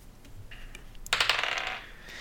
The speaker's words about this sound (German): Dann äh, würfel nochmal einen Angriff.